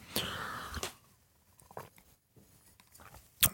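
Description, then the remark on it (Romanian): Someone takes a sip of water: a soft rush of breath and slurping, then quiet wet mouth clicks and swallowing sounds, ending with a sharper clack. No one speaks. “bă, mi-am luat și eu un pic de apă aici.”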